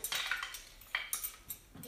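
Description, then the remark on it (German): Two metal spatulas scrape and clink against a pan in a few quick strokes, with a light sizzle underneath, as a pancake is flipped. “Jetzt kann ich die wenden. Äh, ich nehme immer zwei Wender, weil ich das nicht kann.”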